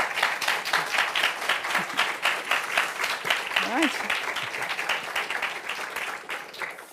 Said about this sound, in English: Thank you very much for your talks and for your engaging discussion. Thank you. Big warm uh, round of applause for them.